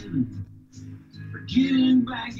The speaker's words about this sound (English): Oh, I've I've also got the stomping grounds song. Here.